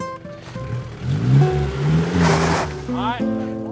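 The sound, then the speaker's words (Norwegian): A pickup truck races at high speed over a small sports field, mud and gravel spraying from its rear wheels, its engine loudly revving and shifting pitch, with a burst of rough rumbling noise midway and a rising whine near the end. “ratter Stein Torleif Bjella i høy fart pickupen over den lille idrettsbanen”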